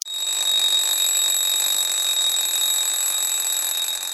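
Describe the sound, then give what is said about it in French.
An alarm clock rings continuously with a bright, high-pitched metallic tone, steady and loud for the full few seconds, with no pauses and no voices. “je me suis retrouvée un peu dans le premier parce que le réveil euh, sonne tous les matins”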